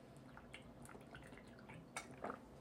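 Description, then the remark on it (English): Quiet liquid sounds of someone sipping water: faint drips and wet slurps, with a couple of brief louder swallowing or gulping noises near the end, no talking. “So let's talk about building leaders as soon as I get a drink of water.”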